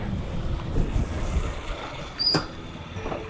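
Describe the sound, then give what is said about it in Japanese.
Gusty outdoor wind buffets the microphone with a low, uneven rumble that swells and eases over a few seconds, with a brief sharper gust or rustle partway through and no one talking. The wind is forecast at about 4 meters per second; the temperature is 5.2 degrees with 42% humidity. “で、風が、ちょっと実測ね、今日風速機持ってきてないんで、わかんないけれども、大だいたい風が実際4メートルぐらい、あの、予測というか予報では出てて、”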